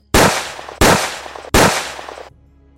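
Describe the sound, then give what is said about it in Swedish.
Three loud gunshots ring out in steady succession from a video clip shown at the police headquarters in Málaga, in which a man runs toward his target with a pistol and fires shot after shot. Each is a sharp crack trailing into a long reverberant tail before fading to quiet. No voices. “En man med pistol springer mot Sofian Ahmed Barak. Han skjuter skott efter skott.”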